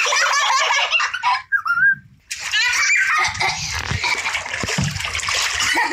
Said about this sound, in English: Don't splash! You just splash me.